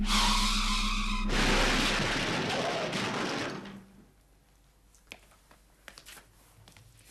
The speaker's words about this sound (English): Oh dear. One of your robots has been destroyed, I think. Oh no! The robot will be safe. In a crash like that, the car would be damaged, human beings would be hurt or killed, but robots would not be harmed.